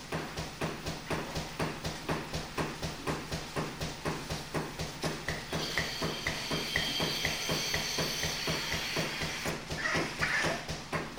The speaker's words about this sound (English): What you were hearing here is the milk pump. Ten sheep are lined up in the parlor being milked, and the compressor makes this rhythmic beat in the background.